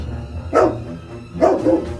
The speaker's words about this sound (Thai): เจ้าไก่ตง ใช้อุบายหลอกโดยไม่คิดไตรตรอง เจ้าสุนัข รีเปิดปากเพื่อตะโกนทันที